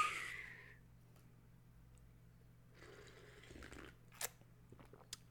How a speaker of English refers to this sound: Quick sip of tea. Tea break, boss. Don't mind me, boss.